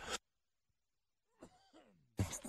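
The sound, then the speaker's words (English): A person coughs: a short harsh cough, a pause, a raspy throaty clearing, then another loud cough. No talking. “I need to find the cough button here.”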